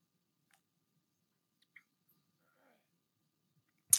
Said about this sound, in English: Excuse me, let me take a drink of water.